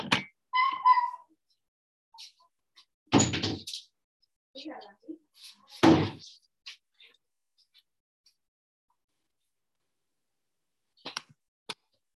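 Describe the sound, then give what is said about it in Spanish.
A door being opened to let dogs in, with two sharp thumps and some rattling, while the dogs whine and whimper; then a quiet stretch with a couple of faint clicks at the end. “Espérenme tantito que voy a abrirle a mis perros.”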